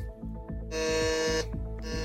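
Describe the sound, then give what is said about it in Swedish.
Quiz game buzzers, pressed eagerly by contestants racing to answer a question, go off in quick succession: a loud, harsh electronic buzz sustains for about a second, surrounded by shorter repeated buzzy tones pulsing rapidly. No one speaks. “Här trycks det för fulla muggar och Carro var snabbast.”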